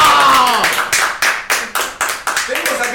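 Applause from a small group: about a dozen crisp claps in a steady, even rhythm, loud and bright, with a brief vocal sound at the very start.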